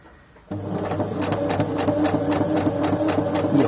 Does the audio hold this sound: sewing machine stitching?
yes